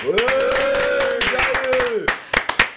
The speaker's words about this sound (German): Warum haben wir eigentlich jetzt keinen Applaus auf Brand? Vielleicht geben wir uns den einfach selber.